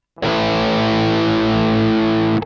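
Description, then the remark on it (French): A single distorted electric guitar A5 power chord, struck once and held for about two seconds at steady volume with a thick, buzzing tone before cutting off abruptly, no voices present. “Prenons en exemple un accord de La 5, un accord de quinte.”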